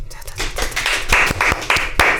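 A short, fairly loud burst of clapping from a small group applauding their president, with sharp individual claps standing out from a steady patter of hands.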